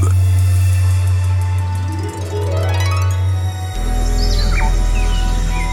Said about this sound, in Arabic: تقترب الشمس من الغروب في غابات تكسوها الاشجار بالكاد ترى بعض الطيور من اعلى وتسمع اصوات الحيوانات